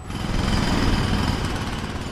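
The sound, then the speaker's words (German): Loud, steady hammering of construction machinery breaking up a street in Cairo, Egypt, a dense rattling pound with rumbling low end that continues without pause; no voices. “In ganz Kairo werden Straßen aufgebrochen, verbreitert, der Verkehr umgeleitet, Hochstraßen gebaut”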